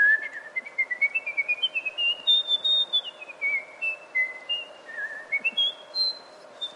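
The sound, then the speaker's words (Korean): Someone whistles a rapid, ornamented melismatic melody, a quick run of short notes climbing and falling in pitch, clear and fairly bright, with a faint steady hum underneath and no talking. “사실은 저는 휘파람을 분 게 악보를 새로 읽어야 되는 악보가 많은데 네.”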